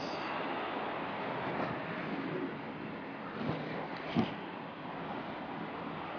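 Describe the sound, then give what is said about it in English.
A steady, dense wash of rain and car traffic drifting up from the Bowery hisses without pause, with a brief thud near the end. No one speaks. “There's the sound of the rain and cars drifting up from the Bowery creating a constant white noise with bursts of percussive horns.”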